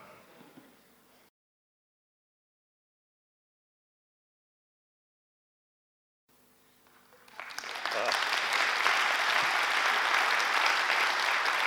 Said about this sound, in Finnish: hitaat, hitaat aplodit on parempi kuin ei aplodita ollenkaan.